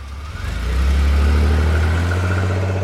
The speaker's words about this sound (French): Bientôt, les portières claquèrent et la voiture s'éloigna.